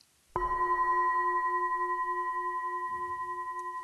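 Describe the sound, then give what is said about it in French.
A single gong is struck once, loud, accompanying a guided neck-and-shoulder self-massage exercise; its bright, steady metallic tone rings on with a slow gentle pulse, fading only slightly over several seconds. No one speaks. “Faisons-le ensemble au son du gong.”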